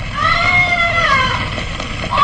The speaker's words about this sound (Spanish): Por qué lado de los sótanos, ahí se oyen sus gritos.